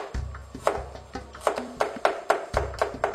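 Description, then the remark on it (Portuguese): A knife finely chopping three garlic cloves on a board for a sauce for potatoes, a steady series of crisp, sharp taps that quickens into an even rhythm, with a low hum underneath and no talking. “Picamos muito finamente os dentes de alho.”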